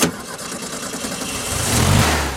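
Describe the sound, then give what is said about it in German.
The engine of a restored 1968 Karmann Ghia Cabrio revs up, its deep rumble building steadily and growing louder toward the end, with no one speaking. “Heute fährt Andreas Ostermeier einen anderen Karmann”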